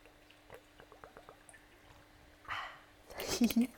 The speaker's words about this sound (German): Ich nehme hier mal ganz kurz ein Schlückchen Wasser. Sekunde.